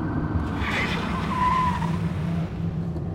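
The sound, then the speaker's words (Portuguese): A car chased by police skids hard through a big curve, cutting along the inner ditch, tires squealing in a rising and falling whine over a loud, steady engine roar, sustained for a few seconds. “Tem uma curva grande ali na frente. Se eu entrar pela vala interna, eles não vão nos pegar.”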